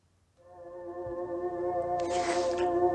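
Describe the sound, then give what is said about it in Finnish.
A voice actor imitates a menacing bear growl in an original version from 1986, a sustained, droning roar that swells in loudness and turns harsher and breathier near the end, heard alone without any talk. “Ja jos te olette pitäneet tuota äskeistä pelottavana karhun äänenä, niin kuunnelkaapas tämä alkuperäinen versio vuodelta 1986.”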